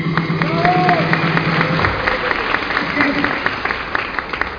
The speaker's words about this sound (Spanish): Así que un fuerte aplauso para él.